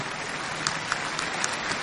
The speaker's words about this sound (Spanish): Agradezcan, lo han hecho bien. Ese aplauso tiene que ser más grande.